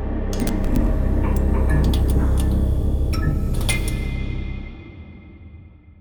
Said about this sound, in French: Et aujourd'hui, on va écouter le scintillement et le bourdonnement d'un néon allumé.